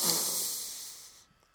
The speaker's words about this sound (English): And I was like, "Jeez, I can breathe in my nose. Look